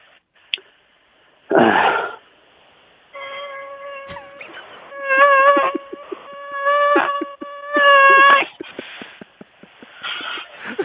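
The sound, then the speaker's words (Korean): A mosquito circles around a person's face with a thin, steady, high-pitched whine that buzzes on and off for several seconds, broken by breathy rustling noises, then the person kills it with a single sharp slap. “예, 다음은 그 이제 모기가 얼굴에 맴돌다가 네. 사람이 때려서 잡는 어, 그 죽는 소리.”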